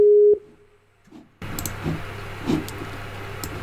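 A loud, steady ringing tone of an outgoing phone call sounds briefly at the start, followed by near silence, then the line opens onto a continuous noisy, rumbling background with faint clicks.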